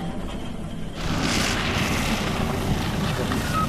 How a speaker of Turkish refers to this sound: Malatya Akçadağ'da şiddetli rüzgar trafik direğini yerinden söktü. Kent merkezinde Büyükşehir Belediyesi'nce sokağa kurulan taziye çadırı da şiddetli rüzgarda uçtu.